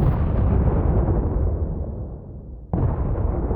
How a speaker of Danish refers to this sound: Krudtrøg, høje flammer og master og sejl, så langt øjet rækker. Kanontordnen bulrer og drønene er massive. De kan mærkes helt heroppe i tårnet som trykbølger.